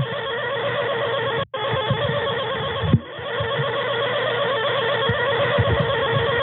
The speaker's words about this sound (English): That's the intercom in my apartment, near the one that opens the door, the front door of the building. It's been doing that for six hours now.